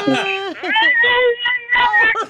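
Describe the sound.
A woman attempts a rooster crow with her voice, producing a few strained, squeaky, wavering high-pitched bursts that sound more like whining than a proper crow.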